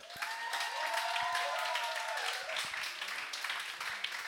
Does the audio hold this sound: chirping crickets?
no